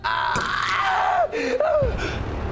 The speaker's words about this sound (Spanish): Marino reacciona rápidamente y le dispara a Ismael que cae al suelo, gritando de agonía con una herida de bala en el brazo